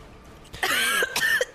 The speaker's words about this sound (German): Ich huste und versuche mich da wegzuwenden